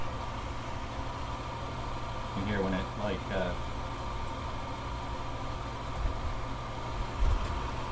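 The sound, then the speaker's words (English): A steady low roar, and a person speaks briefly partway through. Near the end, a soft low whump sounds once as a natural gas fireplace ignites at the press of a button. “Anyway, all right, let's turn the fireplace on here. Just press a button. It's the gas fireplace.”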